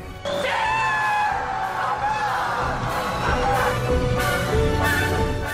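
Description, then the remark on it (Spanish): Loud, sustained celebratory screaming and yelling from a crowd shouting "¡Toma, toma!" in celebration of Fernando Alonso's Renault victories and world titles, several voices shouting together in jubilant bursts that swell and overlap for the whole stretch, energetic. “Los títulos mundiales, la marea azul, los pajaritos y los gritos alrededores de ¡Toma, toma!”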